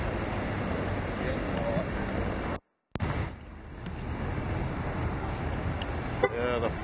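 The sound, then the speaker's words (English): Steady rumbling outdoor noise runs throughout, broken by a brief silent gap, then a single short car horn beep sounds near the end, clear above the background, as a driver arriving in a Senator car beeps to announce he is there. “Fogs is here, finally beeping at me.”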